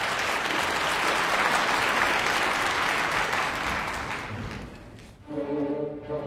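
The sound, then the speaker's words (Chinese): Warm, sustained applause from a large audience as the conductor takes the stage, dense steady clapping that fades after about five seconds as an orchestra begins playing held, tonal chords of the overture to a Mozart opera. “现在指挥已经上场了，场内响起了热烈的掌声。”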